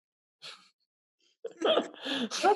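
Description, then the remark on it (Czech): A short breathy intake followed by a loud, voiced two-part sneeze, alone, sounding like a person imitating a sneeze with their voice rather than a real one. “Nevadí, přemýšlejte nad tím, my budeme kýchnout hepčí”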